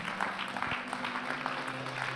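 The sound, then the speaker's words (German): Steady applause from a crowd fills the whole stretch, a dense patter of many hands clapping at a moderate level, with a low constant hum underneath and no voices. The crowd applauds the people who have just consciously prayed for the first time. “Hey, lass uns den Leuten, die das bewusst zum ersten Mal gebetet haben, einen Applaus geben.”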